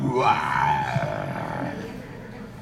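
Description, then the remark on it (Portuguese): A person growls out a long, throaty roar in imitation of a lion, one sustained vocal blast that starts loud and slowly trails off over a couple of seconds. “Aí de repente vocês ouvem um rugido ali do lado de fora.”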